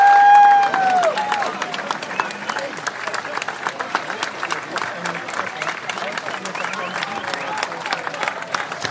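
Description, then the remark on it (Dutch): A crowd applauds with dense, sustained clapping and scattered cheers after the final show of the Spookslot, following a chant of "Spookslot bedankt"; a brief high whistle-like tone at the very start, steady and fairly loud throughout. “er gewoon eh, een spookslot bedankt gescandeerd.”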